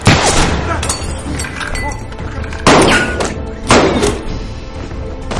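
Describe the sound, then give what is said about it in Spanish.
Two loud pistol shots crack out about a second apart, bringing down a servant during a toast to the king. Each is a sharp burst with a short ringing tail, over a busy background of murmuring voices and commotion. “El sirviente cae abatido por dos disparos.”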